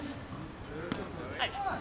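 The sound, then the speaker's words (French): A padel ball bounces once and is then struck by a player on a padel court, two sharp knocks about half a second apart over a murmur of background voices and court noise. “un rebond et je tape.”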